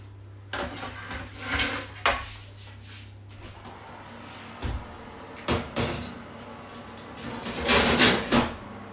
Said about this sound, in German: So, jetzt kommt mein erstes Blech in den Ofen.